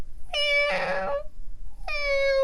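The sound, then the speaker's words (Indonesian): A kitten meows twice, high-pitched, sounding distressed: the first cry is long and strained with a raspy, wailing middle, and after a short pause a second cry begins and cuts off. Heard on the afternoon of 25 January 2019 during heavy rain with thunder. “kayak kucingnya tuh kayak kucing kesakitan sih oh, tepatnya gitu masih kecil”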